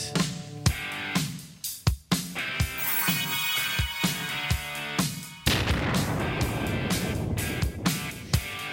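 Booming explosions and sharp blasts go off repeatedly over a dense, roaring backdrop, like a loud bombardment sound effect with rapid impacts and a sudden surge of rumbling noise midway.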